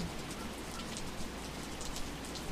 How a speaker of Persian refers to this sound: بارون میاد جر جر رو گنبد و رو منبر رو پشت بوم حاجر رو خونه های بیدر